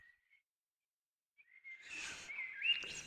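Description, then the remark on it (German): Soft, thin bird chirps and whistled notes in a quiet outdoor setting just after sunset, faint at first, then joined by a brief rustling wash of noise as the calls continue. “wir sitzen hier, haben uns die Schlafsäcke über die Beine geschwungen, die Vögel zwitschern, die Sonne ist gerade untergegangen”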